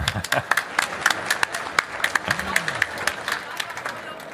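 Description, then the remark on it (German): An audience applauds steadily on a Friday midday, many hands clapping in a dense, continuous patter, with a brief voice or murmur briefly rising underneath partway through. “Vielen, Applaus, äh, vielen Dank und Applaus für euch erstmal.”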